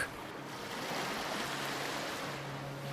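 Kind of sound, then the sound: nature, sea waves surf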